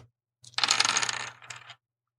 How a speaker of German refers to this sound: Pass auf, ich guck mal, ob wir diesen Würfelsound eingefangen bekommen.